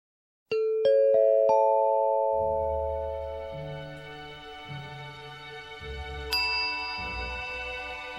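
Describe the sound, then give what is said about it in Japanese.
A four-note announcement chime rings out in quick succession, its bell-like tones sustaining and fading over a low background rumble, with another bright chime note struck later. “あとピンポンパンポンで入るから”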